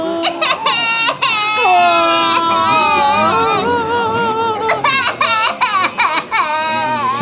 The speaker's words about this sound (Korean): 그런데 그때 결혼식장 곳곳에서 울음소리가 들리기 시작했어요.